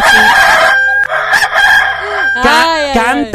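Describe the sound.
A rooster crows loudly, a drawn-out, wavering cock-a-doodle-doo that swells toward the end, with noisy clucking-like sounds before it and no talking.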